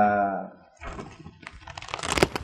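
A voice trails off briefly, then papery rustling and crinkling follows, with irregular soft crackles and flicks as the pages of a printed paper course booklet, bound with a plastic cover and spiral binding, are handled, growing a little louder toward the end.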